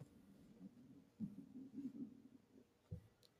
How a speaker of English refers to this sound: did you guys hear my stomach growl? I'm so sorry. I'm like really hungry, and I, got I woke up an hour ago and I'm hungry.